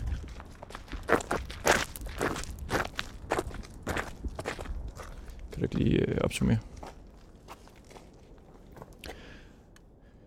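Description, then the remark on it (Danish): Steady footsteps crunch along a forest path among tall pine trees at a walking pace while people talk over them; a brief louder rustling scuff stands out midway. “En cykellygte, hun ind, har fundet her i skoven en mørk aften, som pludselig lå der og skinnede midt på den her sti, vi nu går på.”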